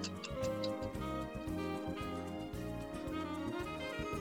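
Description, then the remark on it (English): A countdown timer ticks steadily, about two beats per second, over a sustained droning musical tone, signalling that five seconds are left to answer a quiz question. It is loud, with no voices. “I will play a timer when you have five seconds left.”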